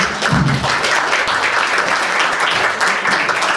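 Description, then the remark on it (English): An audience gives a guest a round of applause at the end of a discussion event, dense overlapping claps forming a loud, even wash of sound with no voices over it, holding at a constant level throughout. “So will you please join me in a round of applause for you.”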